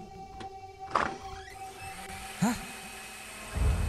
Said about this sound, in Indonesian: Blender. Gila. Siapa yang ngeblender malam-malam gini? Kalau didengar-dengar sih ini suara datangnya dari dapur.